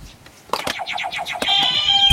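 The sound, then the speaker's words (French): Quiz buzzers go off in quick succession: a sharp click, then a rapid warbling electronic chirp, followed by a bright sustained tone. The sounds are loud, with no talking. “On peut avoir un petit test des buzzers ou pas”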